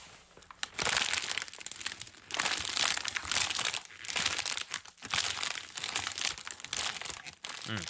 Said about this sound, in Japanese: 卵のパックを踏み潰そうと